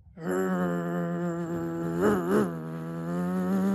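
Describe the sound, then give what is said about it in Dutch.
An antique sidecar motorcycle arriving from the distance, carrying Professor Johanna Westerdijk in the sidecar; its engine drones in a steady, buzzing roar, swelling briefly twice in the middle before settling back to an even hum. No one speaks. “Er arriveert een antieke motorfiets met in het zijspan professor dokter Johanna Westerdijk.”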